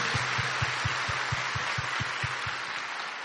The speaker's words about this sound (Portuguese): Eu aplaudo vocês.